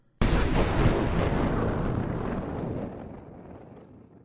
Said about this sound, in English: According to one witness at his deathbed, at about five in the afternoon, there was a clap of thunder.